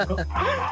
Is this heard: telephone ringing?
no